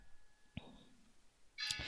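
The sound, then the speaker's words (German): A household doorbell rings: a soft, short tone first, then a brighter, louder chime near the end, with no talking over it. “Entschuldigung, liebe ZuhörerInnen, das ist unsere Klingel, aber da muss ich nicht an die Tür.”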